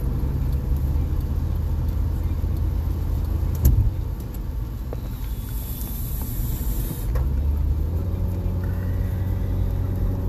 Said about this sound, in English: Some people just don't know how to drive. I just had to hit my brakes and I almost went on the grass because somebody turned in and the other one opened up because they wanted to go around him.